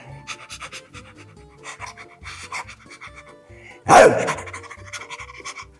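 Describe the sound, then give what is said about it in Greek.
Someone imitates a muzzled dog, likened to Bane, that came up behind them while walking at two o'clock, panting with quick rhythmic huffs and snorts, ending in one sudden louder, rougher burst of breath. “Όταν είδα όμω το σκυλί του Σατανά, ήταν ένα σκυλί με το μουζέτο που λέει, ή σαν το Μπέιν ήταν το σκυλί, και εδώ ήταν έτσι.”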